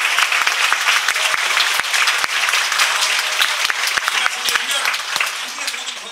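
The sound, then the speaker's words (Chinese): A church crowd applauds steadily to thank Jesus, a dense wash of many hands clapping at once with sharper individual claps popping out, sustained and fairly loud throughout. “主耶稣啊，我们的长兄长啊啊，我啊鼓掌，谢谢耶稣好吗？”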